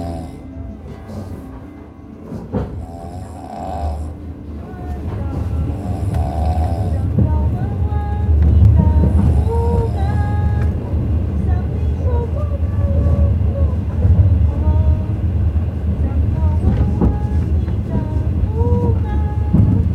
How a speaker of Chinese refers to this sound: 这是我的软卧的车厢。